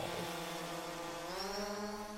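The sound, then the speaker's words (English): A steady, loud motorized whine of drone engines with stacked harmonic tones as the drone is sent down into the Site A sinkhole, pitch wavering slightly and rising toward the end as it keeps running continuously, no voices. “Engines are go. Links are green. All right. Sending drone down now.”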